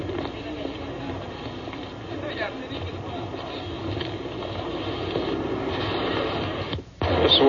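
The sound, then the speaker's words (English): A dense, steady roar of busy street traffic in the Ginza, Japan, on a Saturday night in spring, engines and general bustle blending into one continuous wash of sound, with a brief dropout near the end. “Japanese traffic sound.”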